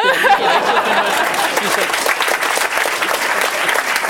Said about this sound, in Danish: ja, så kom der med det klap.